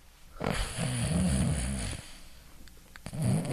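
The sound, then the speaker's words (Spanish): A person imitates snoring with a long rattling, throaty snore, followed after a brief pause by a second, shorter snort-like snore. “el tuyo es como para adentro, el mío es así. Y no ronco mucho, ¿eh?”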